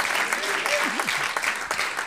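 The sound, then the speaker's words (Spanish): A church audience applauds the Lord steadily, a dense wash of many hands clapping at once, with a few voices calling out faintly beneath the applause. “devolvemos un aplauso al Señor.”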